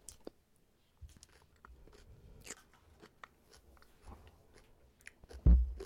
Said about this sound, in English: Hold on, this KFC goes so fucking good.